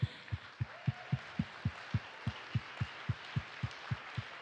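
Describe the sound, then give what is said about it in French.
At an Église sur le roc gathering in Sherbrooke, a crowd applauds steadily for attendees standing up who were at its 1998 meetings at the Hôtel Delta, a dense wash of clapping over a regular, thumping low beat that pulses about three times a second, with no one speaking. “On veut que vous vous levez, on veut vous voir et vous applaudir.”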